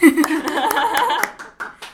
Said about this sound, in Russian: Тут должны быть аплодисменты. Ой, ну, похлопай.